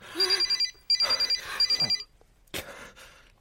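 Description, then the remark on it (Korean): A telephone rings in three quick bursts of rapid, trilling bell pulses with a bright metallic tone, followed by a sharp click and then near silence. “마침 전화 오는구나, 이 자식.”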